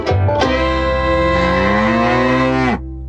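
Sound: cow mooing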